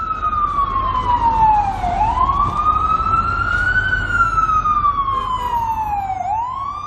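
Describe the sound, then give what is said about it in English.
A wailing emergency siren in New York sweeps slowly up and down in pitch, loud, over a steady rumble of road traffic, with no voices. “no, that's sirens.”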